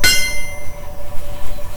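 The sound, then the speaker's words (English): A single loud hammer blow driving a nail into a steel rail of a train track, a sharp clang whose bright metallic ring hangs and slowly fades over a low background rumble. “His wounds are still open pulsing, but still he drives the hammer down.”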